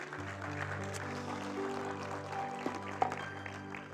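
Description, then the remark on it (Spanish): A church audience applauds for the Lord at a morning service, a dense wash of clapping that holds for several seconds over sustained, held keyboard chords, with a few sharper claps standing out near the end. “Vamos un fuerte aplauso al Señor Iglesia en esta mañana.”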